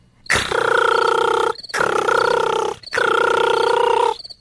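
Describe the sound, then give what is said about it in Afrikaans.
A cricket, Kobus Koringkriek in a story, rubs its two rough front legs together at a concert, its scraping call coming in three long, steady bursts, each about a second, with brief gaps between. The rasping, buzzy sound is loud, and no one speaks. “Iets soos 'n skuurgeluid wat net nie ophou nie.”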